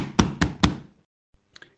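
Police knock on the door of the Cerdán family house at Calle de Santa Clara number 4 at 7:30 in the morning of 18 November 1910: three firm, evenly spaced loud knocks, followed after a pause by two faint, quick taps.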